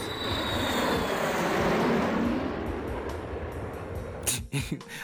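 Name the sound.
airplane flying overhead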